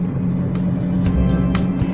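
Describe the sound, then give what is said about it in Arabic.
A steady low engine drone fills the cabin from inside a car, recorded while the speaker drives. A constant rumbling hum carries faint periodic ticks or clicks repeating above it, with no voices present. “السبب اللي حدا به هذه المرة إلى التسجيل من السيارة هو شدة الضغط والانشغال آه الذي يواجهه هذه الأيام”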